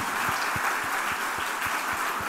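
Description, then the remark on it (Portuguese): A church audience applauds its pastors and volunteers steadily, a dense wash of clapping with a faint regular beat running underneath, fairly loud and continuous throughout, with no one talking. “Vamos aplaudi-los também, queridos.”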